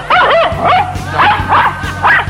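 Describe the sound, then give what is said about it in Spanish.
A female dog barks in a quick series of about five high, yelping barks, each short and rising, spaced roughly half a second apart, with no one talking over them. “No, Margarita es la perra.”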